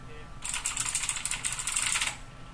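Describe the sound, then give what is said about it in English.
Rapid, clattering keystrokes on a noisy mechanical keyboard used in an office, a dense burst of clicks lasting under two seconds, fairly loud over a low background hum. “Firstly, I have a different keyboard now that I use in my office here, and it's a tad noisy.”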